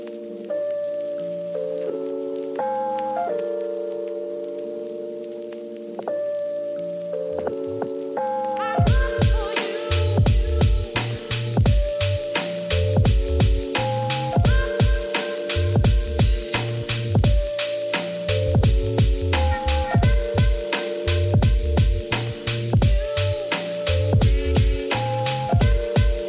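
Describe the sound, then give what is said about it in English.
A music track plays: sustained synth chords open softly, then a punchy drum beat drops in around the middle and drives steadily and loudly to the end, with no voices. “Yeah, yeah, let's hear some music.”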